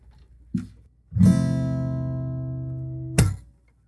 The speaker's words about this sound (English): I did a little sound chime. I did a little chord in the middle of each transition from question to question. It sounded a little something like this.